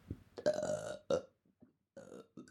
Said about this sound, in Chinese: 哦，是你打嗝还是我打嗝啊？哦，原来今天我们吃太多了。